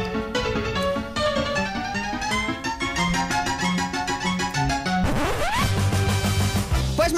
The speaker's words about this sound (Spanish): Bueno, oye, ponemos la, sintonía, ¿lo hacemos bien esto? Sí, venga, vamos a poner la sintonía